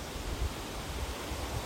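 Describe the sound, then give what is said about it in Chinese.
The Guanwu Waterfall roars in a steady, unbroken rush of white noise, full and even from low rumble to bright hiss, with no voices or other sounds over it. “嗯，很大声的声音是瀑布，”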